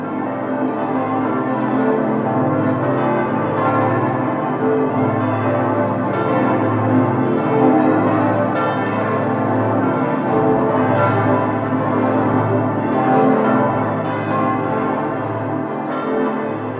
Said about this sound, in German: Dann folgt als nächstes die Bonifatiusglocke, die direkt über uns. Dann kommt die Gundeka-Glocke hier und ganz außen noch die Franz-Xaver-Glocke.